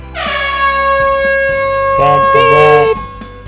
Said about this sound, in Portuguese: Pode soar a buzina, porque esse episódio já está começando.